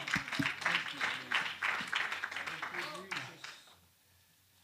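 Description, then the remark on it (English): A crowd claps hands unto heaven during a sermon on revival, a dense, uneven patter for a few seconds, mixed with voices calling out, then the clapping fades away to near quiet. “Can we clap our hands unto heaven?”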